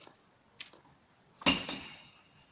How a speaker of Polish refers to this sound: No, teraz, jak słyszycie, jest segregowane szkło. Za, za darmo. I my za to płacimy i oddajemy za darmo. Chodź, Miśku. Chodź, Miśku. Chodź, Miśku. Nie bój się, to tylko butelki.